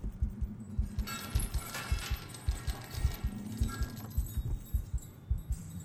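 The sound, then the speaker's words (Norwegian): Heavy chains clatter and rattle in a hall, as if dragged step by step up a staircase, over a steady rhythm of dull low thuds; moderately loud, with no voices. “En klaprende lyd gjenlød fra hallen, som om noen slepte tunge lenker oppover trappen.”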